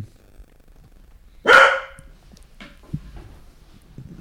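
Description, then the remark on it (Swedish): A single loud dog bark bursts out, followed by a fainter, shorter yip or bark moments later, with quiet background otherwise. “att man kan gissa hur många hundskall man har hört i den här I denna podden.”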